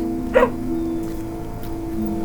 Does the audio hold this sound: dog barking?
yes